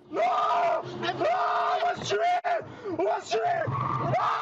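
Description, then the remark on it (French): A ride-hailing driver, attacked by passengers who refused to pay their fare, shouts in panic, loud, his strained voice rising and breaking in repeated cries for help over several seconds, with other agitated voices clamoring around him. “Paniqué, le chauffeur hurle pour alerter autour de lui.”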